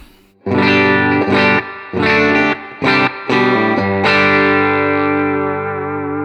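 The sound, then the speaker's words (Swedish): A loud, distorted electric guitar with a high-output humbucker pickup, guitar volume turned up, plays a few punchy, rhythmic chord stabs, then lets a final thick chord ring out and slowly fade. “Så här låter handbacken.”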